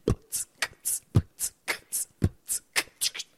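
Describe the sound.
A simple vocal beatbox pattern: a steady, quick rhythm of short mouth-made percussive hits, with deep kick-like thumps alternating with crisp, hissy snare and hi-hat sounds. No talking.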